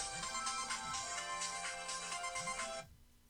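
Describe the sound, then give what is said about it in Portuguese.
A phone ringtone plays loudly and steadily with a bright, melodic electronic pattern, then cuts off abruptly near the end. No one speaks over it. “É, você que, tá aí, você que tá aí no telefone, espera só um minutinho.”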